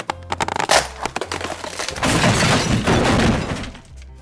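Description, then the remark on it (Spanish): A pig's house built of straw collapses after a knock on its door: a few sharp cracks lead into a loud, dense crackling, rustling crash that holds for over a second before quickly fading. No voices. “Desde luego, tan pronto como toqué a la puerta, se derrumbó.”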